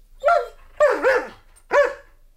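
A dog barks, a few sharp, yappy barks with short pauses between them, two coming in quick succession in the middle. No one speaks.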